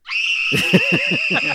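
A woman screams in a song, one long, shrill, steady note held throughout, with a pulsing run of swooping lower musical tones entering partway through beneath it.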